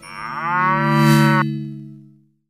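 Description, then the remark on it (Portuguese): A single long cow moo, loud, swelling steadily before cutting off its upper tones and fading out over a low hum, with no voices present. “Penetrou fundo no seu amigo cara de pau e achou uma vaca que voa por lá.”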